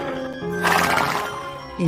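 A horse whinnies in one loud, drawn-out neigh, its wavering harmonic call rising to a breathy peak before trailing off.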